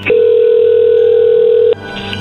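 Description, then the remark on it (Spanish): A steady, unbroken telephone dialing tone, heard as a call is being placed, holds one mid-low pitch for about a second and a half, then cuts off abruptly, leaving a faint background hum with no talking. “Sí, pero ahí le están marcando.”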